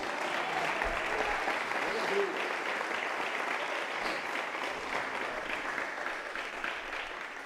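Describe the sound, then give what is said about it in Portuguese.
A church audience applauds Jesus steadily, a dense, even wash of many hands clapping that holds at a constant level for several seconds with no pauses, faint voices mixed in. “Você pode dar uma salva de palmas para Jesus, querido?”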